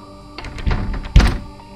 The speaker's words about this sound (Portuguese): Após sua tentativa frustrada de abrir a porta, ela notou que a maçaneta estava enferrujada, como se não fosse usada há anos.